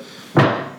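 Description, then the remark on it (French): A single sudden thud as a chair bumps or knocks against something, sharp at the start and fading over a fraction of a second, with no voices. “C'était une chaise.”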